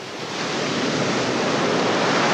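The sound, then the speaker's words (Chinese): Rushing river water flowing downstream toward a waterfall roars steadily in a dense, hissing wash of sound, swelling slightly louder after the first moment and holding constant with no voices. “小黄点随着河水顺流而下，直奔瀑布去了。”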